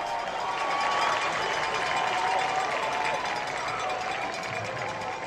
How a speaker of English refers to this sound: I've got that crowd sound ready to roar and I can just bask in it.